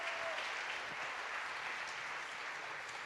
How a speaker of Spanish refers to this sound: Denle un aplauso a mis actores voluntarios.